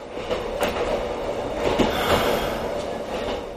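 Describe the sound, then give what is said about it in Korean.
A night train bound for Rome rolls steadily across the long railway bridge linking Venice with the mainland, Italy, with a continuous rumble and a few periodic wheel clacks; no voices are heard. “그가 탄 로마행 밤기차가 서서히 움직이기 시작하고 베네치아와 내륙을 잇는 긴 다리 모양의 철교 위를 달리기 시작했다.”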